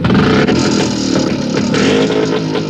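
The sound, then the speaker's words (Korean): Loud, continuous engine roar of three motorcycles ridden by young women passing by at a beach, a dense rumbling drone with revving surges that stays strong throughout, with no voices heard. “어디선가 오토바이 세대가 나타나더니 굉음을 내며 지나가는 겁니다.”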